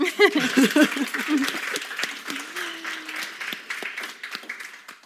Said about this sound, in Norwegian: En applaus til.